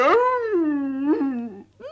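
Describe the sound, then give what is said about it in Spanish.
A wolf howls once, loud: a long, mournful note that slides down, holds, then lifts briefly before a short second cry starts at the very end. No one speaks. “Y en esto llegó el lobo feroz, compadre de la bruja.”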